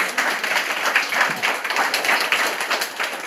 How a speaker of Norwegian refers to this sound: uh, ja, det er bare å klappe.